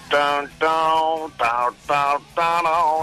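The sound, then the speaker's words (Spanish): A voice imitates a doorbell with five short, buzzy tones in a steady on-off rhythm, each about half a second long, loud. “Echando humo, tío, y me suena el timbre, tío.”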